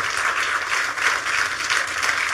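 A church audience applauding in praise of Jesus, a dense, steady wash of many hands clapping at once, sustained and fairly loud for a couple of seconds with no voices standing out.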